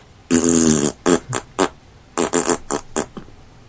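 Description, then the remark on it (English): A voice imitates a fart, quoting the first page of a book of farts: one long buzzy blast, then a few short sputters, a brief pause, and another quick run of loud, punchy blurts. “I saw your fart book.”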